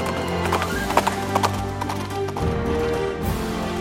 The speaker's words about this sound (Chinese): 两个人正在争执的时候，绅士刚好把马制服，然后快马加鞭走掉了。